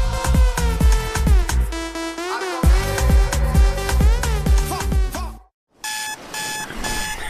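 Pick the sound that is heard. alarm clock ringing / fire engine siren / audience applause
alarm clock ringing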